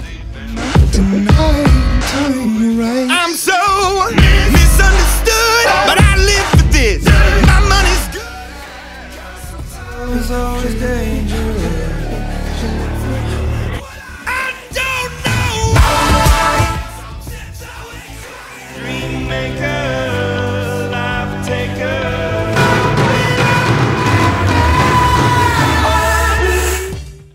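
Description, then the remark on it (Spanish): Loud, dense pop-rock music with a singer belting and shouting a chorus about personal overcoming over full band backing, the beat building from low to high, played as a few short excerpts cut back to back, each with its own sound. “Se basa en la construcción de menor a mayor del beat, llegando a un coro en el que el vocalista nos canta gritando sobre superación personal, como en las canciones que pondré ahora.”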